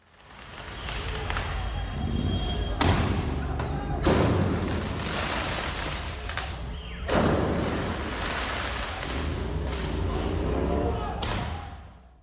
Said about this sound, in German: Also mein Geräusch ist äh, so die Feuerwerksknallerei, die wir jetzt in den vergangenen äh, Tagen und Nächten hier in Frankreich äh, wirklich um die Ohren bekommen haben.